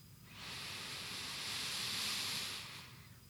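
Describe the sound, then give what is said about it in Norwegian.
A single slow breath drawn in through the nose, a soft airy hiss swelling gently for about two seconds and then fading, with no talking. “Hvis du lytter til pusten min, så puster jeg sakte inn gjennom nesen først.”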